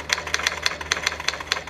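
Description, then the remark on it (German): Typewriter typing: a steady run of about ten crisp, sharp key strikes in quick succession over a low mechanical hum, with no voices. “Noch nie auf einer Schreibmaschine getippt”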